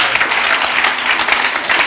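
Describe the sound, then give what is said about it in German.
Audience applause from the men in the audience: many hands clapping in a dense, steady wash of sharp claps, fairly loud and sustained throughout, with no one speaking over it. “Alle Männer klatschen!”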